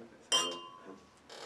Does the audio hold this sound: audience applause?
no